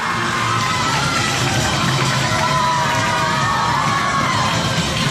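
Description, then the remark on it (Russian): A dense crowd of children and adults shouts, cheers and applauds continuously for a performer rotating a heavy cubic metal frame around his body, voices overlapping loudly, forming a steady roar of excitement with no pauses. “Да, как дети и взрослые кричали аплодировали.”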